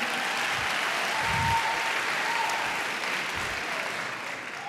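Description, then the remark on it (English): Sustained applause from an audience, a dense wash of many hands clapping at a steady loud level, tapering only slightly toward the end. “Can we get a hand clap for one more time”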